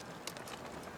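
A 40 kg trailer holding water, food and clothes rolls along behind a lone runner crossing Australia, its wheels rattling in a steady, noisy clatter with a few sharper knocks, fairly quiet, with no voices.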